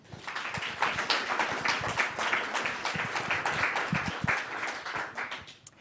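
Audience applause welcoming a guest: a dense, steady patter of many hands clapping at once, sustained at an even loudness for several seconds before tapering off at the end, with no voices over it.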